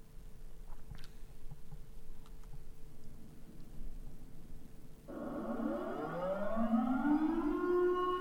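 A civil defense air raid siren starts up after about five seconds of quiet, its loud wail climbing steadily in pitch as it spins up and holds, with no voices present.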